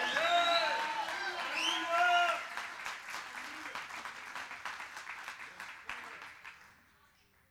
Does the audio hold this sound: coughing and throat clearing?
no